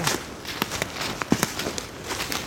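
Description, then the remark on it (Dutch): Footsteps crunch through leaf litter on a forest floor, a handful of uneven steps with soft crackles and rustles between them, no talking. “Ja, dan lopen we iets meer die kant op.”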